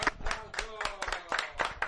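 A group claps steadily to send off a participant who has just sung a samba, the sharp slaps coming in a quick, uneven rhythm at moderate loudness, with voices calling out underneath for about two seconds.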